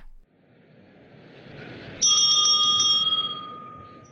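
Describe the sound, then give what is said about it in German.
The bell of the German Bundestag rings loudly in a rapid, trilling burst for about a second and a half, opening a session on 22 November 2005 under its president Norbert Lammert, then fades over a low murmur. “Da ist sie wieder, die Glocke vom Anfang dieser Folge, die einen historischen Moment einläutet.”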